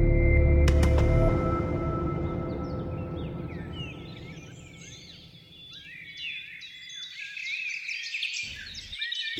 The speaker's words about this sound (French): pour la poétesse Emily Dickinson, c'est le chant des oiseaux qui incarne l'espoir.